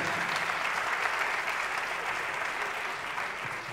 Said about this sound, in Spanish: Un aplauso para toda la gente de Yucatán. Público hermoso de Yucatán.